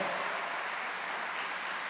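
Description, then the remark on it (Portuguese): A church audience claps steadily together to applaud God, a dense, continuous wash of applause that holds at an even loudness for the whole two seconds, with no voices standing out. “Quem quer, não quer sair fora do propósito de Deus, aplauda Ele bem forte, de todo o teu coração.”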